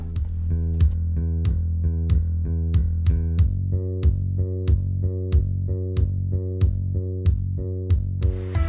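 A song plays on radio station Ibero 90.9 during the show Inspiria Beta, with a steady, evenly spaced beat, sharp percussive hits over a sustained deep bass and bright, pulsing synth-like tones. It sounds fairly loud and continuous, with no singing or talking.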